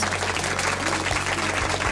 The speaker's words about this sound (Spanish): También, bueno, así que para ellos un fuerte aplauso.